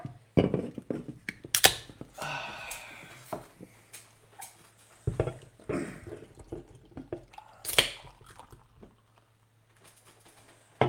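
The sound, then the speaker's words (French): A beer, the second of the evening, is opened with a sharp hiss, then poured and fizzing, with scattered clinks and handling noises over a low steady hum. “On, s'en va prendre une, petite bière.”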